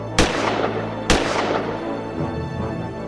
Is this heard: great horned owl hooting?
no